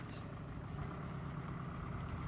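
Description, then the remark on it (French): A heavy truck's engine rumbles steadily as it is driven onto a weighbridge, a low, continuous drone that holds an even loudness as the vehicle creeps forward, with no voices. “Yvan conduit le camion à la balance”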